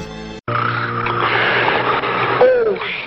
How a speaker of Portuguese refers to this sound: E quem lembra da forma que era acordada aquela pessoa que roncava muito, né? Vamos lembrar disso também?